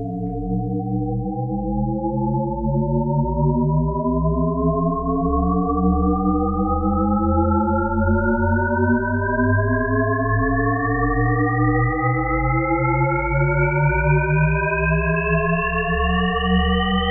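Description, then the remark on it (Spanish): A steady, loud stack of tones glides upward without pause in a looping tone illusion, where one wave ends and the next begins yet seems to keep rising endlessly without reaching the top. A low hum sits beneath it, and no one speaks. “Y es como un círculo que vuelve a empezar, pero en verdad eh, nuestra mente parece que está continuando y continuando.”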